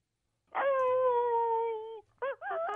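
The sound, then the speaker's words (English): A dog lets out a long, high, steady whine, then breaks into a couple of quick, wavering yips. It's fairly loud, with no talking. “Like it or not, that dog is here to stay.”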